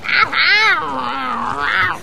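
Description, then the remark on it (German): A single long, drawn-out meow from a tomcat, loud, wavering in pitch as it rises, sags and climbs again before cutting off. No talking over it. “Hey, du bleibst hier, Katze.”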